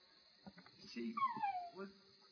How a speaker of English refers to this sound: I conceded and made him a golden lab because that is the sound effects I'm using. Those those yips are of a like year old golden lab puppy.